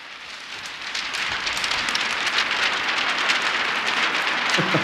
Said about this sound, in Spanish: Tenemos una lluvia lejana que se superpone a esta más cercana.